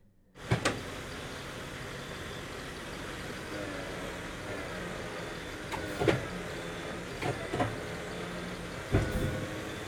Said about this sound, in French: grincement d'une machine d'un bras articulé.